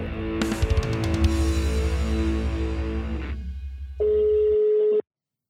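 A burst of noisy hum and clicks gives way to a steady, buzzing telephone tone lasting about a second, fairly loud, then cutting off abruptly, as a phone call is placed to a guest. No one speaks.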